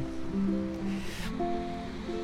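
ocean waves

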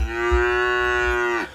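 cow mooing

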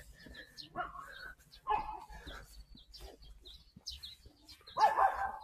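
dog barking

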